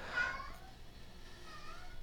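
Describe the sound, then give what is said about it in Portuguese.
A cat meows once, a short, fairly quiet cry near the start, followed by a softer, drawn-out mewing tone trailing off over faint background hiss. “Miau.”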